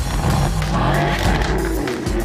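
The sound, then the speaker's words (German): A loud tuned car engine roars at a tuner meet at the Nürburgring, its revving pitch rising and sliding as the vehicle moves past, with a rough, throaty exhaust tone and steady background rumble. “Mittlerweile sind allerdings auch immer mehr Tuner mit knallendem Auspuff und röhrendem Motor in den”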